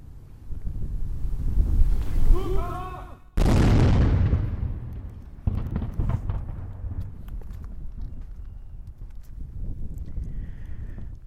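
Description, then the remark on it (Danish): A single loud cannon salute, fired with blank powder from the battery on the Sixtus Bastion to mark the Danish flag being raised or lowered, booms out suddenly, its blast rolling away in a long fading rumble over steady outdoor wind noise, with a few faint cries just before the shot. “Kanonslaget, vi hørte til sidst, kom fra batteriet på Sixtus-bastionen, hvor der to gange dagligt, året rundt om morgen kl.”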